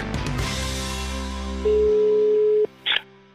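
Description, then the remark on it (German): A single steady telephone ringing tone of an outgoing call to Thorsten Fink sounds for about a second over a fading musical background, then stops and is followed by a short click-like noise as the line connects. “Und wegen Fußball rufen wir den Thorsten Fink jetzt an.”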